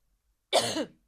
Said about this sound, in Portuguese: Alguém está com tosse que não é. Alguém, é verdade.